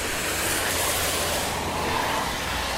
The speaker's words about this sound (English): Across the road here. I think it's rush hour now. More, definitely more cars than half an hour ago.